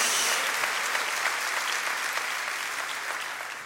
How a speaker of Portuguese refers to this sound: Quem recebe essa palavra, dá uma salva de palmas ao Senhor, dá um glória a Deus em nome de Jesus.